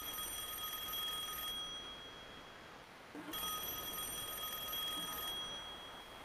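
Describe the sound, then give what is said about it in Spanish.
A telephone rings in two long, bright bursts separated by a short pause, the trilling bell tone loud, with no one speaking. “Sí, ese teléfono.”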